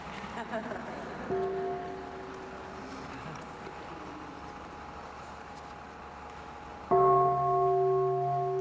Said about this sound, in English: bell, the bell.